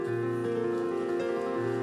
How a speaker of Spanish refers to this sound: ¿Cuántos dicen amén? Le das un fuerte aplauso al Señor.